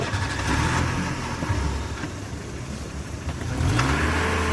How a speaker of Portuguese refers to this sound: Enfim, as pernas entraram, a porta foi fechada e os dois carros deram partida ao mesmo tempo.